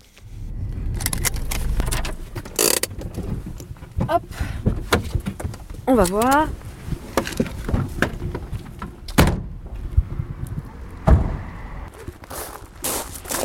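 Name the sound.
getting into a van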